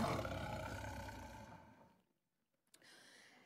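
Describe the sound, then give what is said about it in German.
A lion roars loudly, a deep rumbling bellow that fades out over about two seconds, then a short silence before a quieter growl begins. “der brüllende Löwe umkreist diesen Tisch immer noch.”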